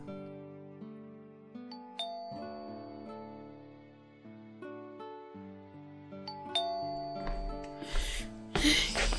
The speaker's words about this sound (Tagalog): Nandito kaya siya sa bahay? Sana. Makapag-doorbell nga.